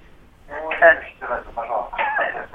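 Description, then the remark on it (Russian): Narrow, tinny phone-line speech with a faint radio echo of the broadcast bleeding back in behind the caller's voice, continuous and moderately loud throughout. “Ой, выключите радио, пожалуйста, чтобы нас эхо не было.”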